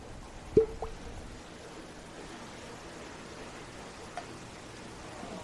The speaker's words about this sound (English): Now, Russell's Reserve is distilled by the good folks over at Wild Turkey. The mash bill is 75% corn, 13% rye, and 12% malted barley. It's 45% alcohol by volume, making it 90 proof. Let's go ahead and pop the cork.